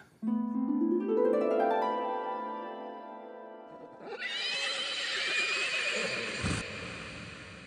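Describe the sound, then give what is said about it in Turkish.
A horse gives a long, loud whinny that rises and wavers, followed by a bright, noisy burst of neighing with a brief thump near the end. No voices are heard. “Neden sonra gözlerimi açtım ki bir atın terkisine bağlayayım ve sabah olmak üzere.”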